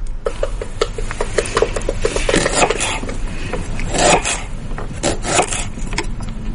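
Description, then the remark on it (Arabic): An onion being chopped on a cutting board in a kitchen: a steady run of quick, irregular knife taps with crisp, woody knocks and light scraping, moderately loud and with no talking. “هذا كان تقطيع بصل”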